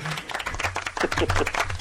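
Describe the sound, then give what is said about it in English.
A brief round-of-applause sound effect played on James O'Brien's LBC radio phone-in show, many hands clapping in a dense, steady patter that stays fairly loud for just under two seconds, with a low hum underneath. “Dave, you can keep your round of applause.”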